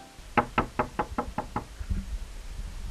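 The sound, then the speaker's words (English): A man, having unlocked the door of a house he built for the gods, knocks on it seven quick, evenly spaced times, fairly loud, in a steady run lasting just over a second, followed by faint low thumps and quiet background noise. “He puts the key into the lock, unlocks it, and then knocks.”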